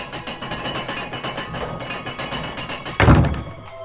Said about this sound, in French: Après de longues minutes d'hésitation, ils finissent par baisser le pont-levis.